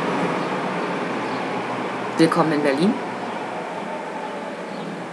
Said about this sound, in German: Ich lasse mal die Straßenbahn vorbeifahren.